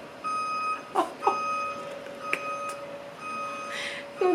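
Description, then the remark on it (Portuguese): A small truck's reversing alarm beeps steadily in repeated tones over a rumbling engine, with a few brief clanks and bursts of noise mixed in, on a Saturday. “Eu estou gravando num sábado para não ter o barulho do caminhão. Mas ele veio.”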